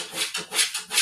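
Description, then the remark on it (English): A dog trying to come in scratches at a wooden door in three quick, rhythmic rasping strokes, moderately loud, with no voices. “that is my dog i apologize that is my dog trying to come in and tell me to go hang out with him”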